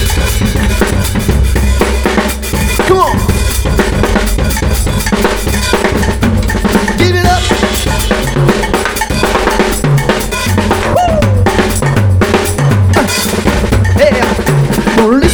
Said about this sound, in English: And we've got it down beat now We're gonna take care of business too now listen to the drummer just play his beat.